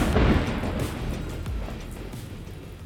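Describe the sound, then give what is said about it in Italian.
Steady, dense downpour of rain in a city, hissing throughout, with a deep rumble of thunder that is loudest at the start and gradually fades into the background. No voices. “non smette mai. Non smette mai la pioggia.”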